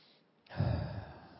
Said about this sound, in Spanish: Vamos a prepararnos tomando una respiración profunda